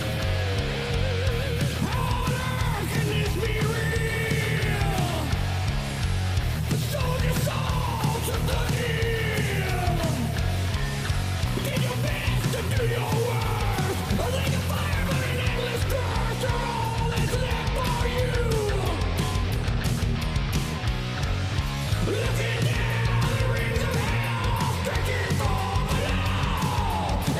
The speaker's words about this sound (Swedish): Det är lite kul att det låter inte som att man har försökt att dubba sången, utan det, det blir som en minikör av leadsången.